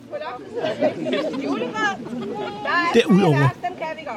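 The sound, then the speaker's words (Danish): Crowd chatter at an outdoor Christmas tree lighting in Vellup Sommerby, attended by 126 people: many overlapping voices murmur steadily at moderate volume, with a laugh and one voice briefly speaking over the babble toward the end. “hvor hun sender lidt lyd fra en juletræstænding i Vellup Sommerby.”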